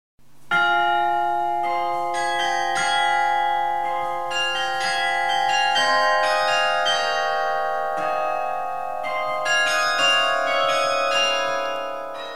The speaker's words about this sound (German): Am 22. September 2004 ist im imposanten romanischen Turm von der Abtei Saint-Maurice im Unterwallis ein neues Glockenspiel oder Carillon eingeweiht worden. Das Instrument umfasst 45 neue und vier von den bisherigen Glocken